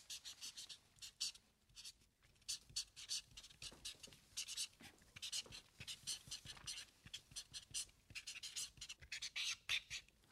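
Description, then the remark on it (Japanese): A marker pen squeaks and scratches across a stiff square autograph board (shikishi) in quick, irregular strokes, fairly quiet, with brief pauses between bursts of writing and no talking, as former Japan women's volleyball player Yuko Mitani writes her dream for five years from now. “この番組ではゲストの皆さんに5年後の夢を色紙に書いていただいております、えー、三谷さんの5年後の夢そちらに書いていただけるでしょうかはいお願いいたします書きますはい”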